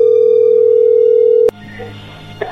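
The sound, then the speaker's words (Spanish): An incoming phone call connecting: a steady, loud single-pitch telephone tone holds for about a second and a half, then stops with a sharp click, leaving quiet line hiss and faint background murmur. “Ahí entró la llamada, llégale.”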